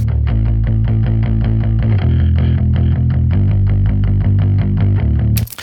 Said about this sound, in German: Der Bass wirkt sofort fetter, obwohl ich eben nicht bei 60 Hertz angehoben habe, sondern eigentlich bei 150 Hertz. Und ich habe auch 3 dB angehoben.